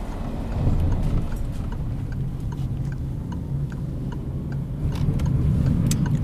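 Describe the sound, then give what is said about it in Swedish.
A car drives to Lappträsk with a steady low engine and road rumble, constant, while faint regular ticks click over the top; no one speaks. “Jag tar bilen och kör till Lappträsk.”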